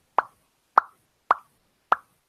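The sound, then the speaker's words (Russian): Four short, hollow mouth pops spaced evenly about half a second apart, imitating bubbles bursting in boiling soup; each pop is crisp, mid-pitched and quickly fading, with silence between. “Когда суп э, кипит, да, идут пузырики, поднимаются наверх и лопаются так.”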